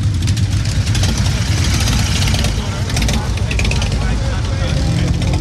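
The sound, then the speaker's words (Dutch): The engine of a yellow V9 Roamer motorcycle in Amsterdam idles steadily, a continuous low rumble with a busy mechanical texture, while people talk over it. “Op een motorkoesie. Deze, deze prachtige gele. Ja, dit is een V9 Romer.”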